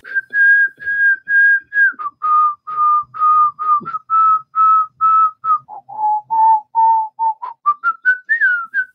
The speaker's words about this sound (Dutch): Een ander voorbeeld dat circuleert, je fluit een deuntje.